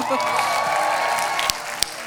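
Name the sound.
audience applause and cheering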